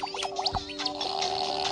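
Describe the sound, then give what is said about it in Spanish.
A comical fart sound effect, wet and gurgling with warbling, bubbly pitch sweeps, runs for under two seconds at a steady, fairly loud level with no one talking. “Exacto, se echa más pedos.”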